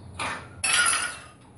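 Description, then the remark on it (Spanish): A drinking glass drops and strikes a hard floor twice, a short knock and then a louder ringing clatter that fades out without shattering. Fairly loud, with no voices. “Y no se rompió.”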